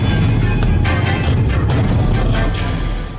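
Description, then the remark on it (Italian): Loud, rumbling explosions of two hand grenades thrown from a group of sambabilini on Via Bellotti, with a dense roar of low noise and a few sharp cracks layered on top, sustained for about three seconds before easing slightly at the end. “Dal gruppo dei sambabilini partono due bombe a mano.”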